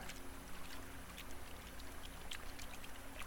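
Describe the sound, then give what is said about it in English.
Steady sloshing and trickling water with scattered splashes as bodies are dragged up out of it, fairly quiet and continuous with no voices. “They're dragging bodies out of the water.”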